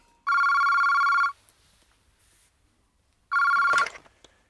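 A telephone bell in a detective office rings in two loud, sustained bursts separated by a pause of silence, the second ring cut off sharply with a clattering click as if the receiver is picked up.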